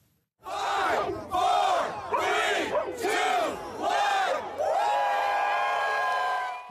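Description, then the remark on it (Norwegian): Several hundred people gathered on a bridge in downtown Portland, Oregon, USA, shout in unison five times in a steady rhythm, like a countdown, then erupt into a loud, sustained cheer with whoops and high-pitched yells as midnight passes and marijuana becomes legal in Oregon. “Flere hundre mennesker hadde samlet seg på en bro i sentrum av Portland.”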